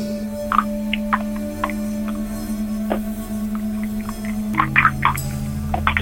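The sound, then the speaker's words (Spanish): Feet shift and splash in a bucket of water, giving several short, irregular sloshes, some louder than others, over a steady low electrical hum. No one speaks. “Necesito escuchar cómo juegan sus pies con el agua. El agua dentro, sus pies de la cubeta. Mueva los pies.”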